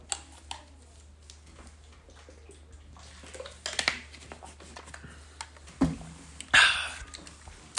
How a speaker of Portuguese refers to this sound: Deixa-me só beber mais aqui um bocadinho de água.